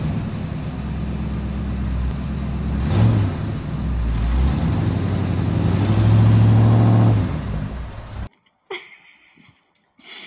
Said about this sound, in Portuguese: esse episódio tinha que ser gravado, assim, né? Com o um barulhinho de, de carro